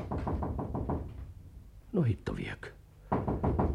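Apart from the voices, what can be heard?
knocking on a door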